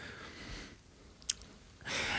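Close-up chewing of soft food, with moist mouth noises and a sharp click partway through, swelling to louder, denser chewing at the start and end. No one speaks.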